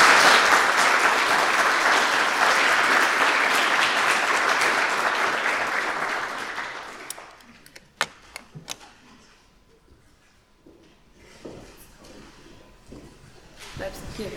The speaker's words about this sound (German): Ich danke Ihnen fürs Zuhören. Applaus